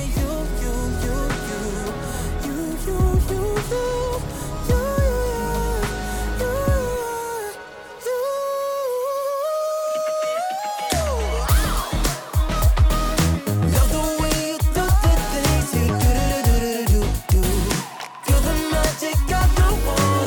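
A song plays loudly and continuously, a melodic line over layered instruments; the arrangement thins briefly midway, then returns fuller with punchy drum hits.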